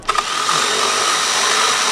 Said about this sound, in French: C'est une scie sauteuse.